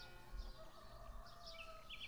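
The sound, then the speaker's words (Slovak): Birds chirp and sing outdoors in short, scattered bursts, some calls bright, over a steady low rumble of open-air background noise, at the seat of the Continuo theatre in Malovice, South Bohemia, Czech Republic. “Pod nami lezú mravčeky a spievajú tu vtáčiky.”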